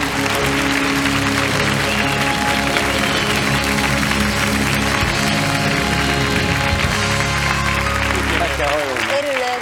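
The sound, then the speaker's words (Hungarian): Loud, steady audience applause, measured by an applause meter to decide whether Judit Pogány gets a point, fills the whole stretch, a dense wash of many hands clapping at once, with a voice briefly emerging over it near the end. “Na akkor kérem szépen a tapselző készülékünk kikerül, és akkor az önök tapsától függ, hogy kap-e egy pontot Pogány Judit.”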